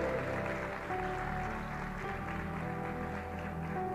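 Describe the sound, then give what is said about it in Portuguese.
A church audience claps steadily for several seconds, giving applause to the Lord in the name of Jesus, a dense crowd of hands filling the space, with sustained keyboard or organ tones playing underneath. “Ei, querido, dá uma salva de palmas para o Senhor em nome de Jesus.”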